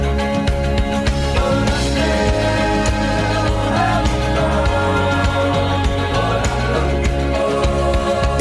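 A gospel-tinged rock song plays at full volume, with steady drums, sustained guitar chords and a rich, layered band sound that runs unbroken throughout, with no talking over it.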